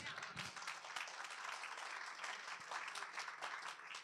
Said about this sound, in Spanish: si vamos a aplaudir a papá, aplaudamos a papá entonces.